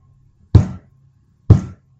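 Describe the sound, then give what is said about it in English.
Two heavy knocking thuds on a surface, about a second apart, each a loud, booming impact that quickly dies away, with near silence around them and no talking. “Sorry, the fact that you did the thud, thud, thud.”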